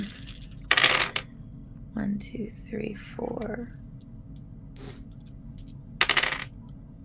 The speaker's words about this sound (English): All right, so I need to roll seven of these. Seven little... dice.